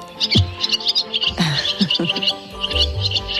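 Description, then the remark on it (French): Swallows twittering in quick, high chirps, a busy cluster of short bright calls repeating throughout, over a faint low background rumble with no talking. “On va s'intéresser alors à un oiseau qu'on connaît tous, c'est l'hirondelle, parce qu'elle annonce le printemps.”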